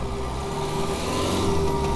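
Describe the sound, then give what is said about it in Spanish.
A steady, droning car engine hums with a low, even tone, rising slightly in loudness toward the end as cars pull off and drive away at night under the stars. No voices. “Y Se marcharon en mis coches bajo las estrellas más tiznadas que la noche.”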